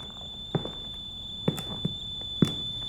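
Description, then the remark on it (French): Several footsteps of a woman walking toward the kitchen sound at an uneven walking pace, soft thuds over a steady high-pitched electronic whine and faint background hiss, with no one speaking. “Elle ajuste son chignon et poussette sa robe du revers de la main et se dirige vers la cuisine.”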